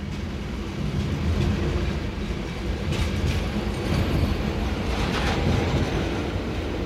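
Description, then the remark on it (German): An intercity train from Cologne to Amsterdam rolling along with a steady, heavy low rumble, overlaid by faint rhythmic clatter of the wheels and a couple of brief hissing swells; no one speaks. “Wir sitzen im Intercity von Köln nach Amsterdam und sind dabei, zwei Lebensläufe aus Halbwahrheiten zu schmieden.”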